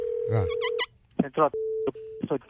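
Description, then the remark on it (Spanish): A steady, mid-pitched telephone tone during a prank call to a funeral home sounds in several short stretches, broken up by bursts of voices speaking over and between the tones. “Vamos a hacer la broma, vamos a llamar una funeraria, ¿ok?”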